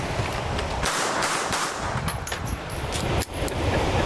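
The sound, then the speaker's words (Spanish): Three sharp gunshots from a .380 pistol crack out in quick succession over a constant, noisy hiss, each one a loud, abrupt burst with no one speaking. “Las armas se disparan siempre tres balazos.”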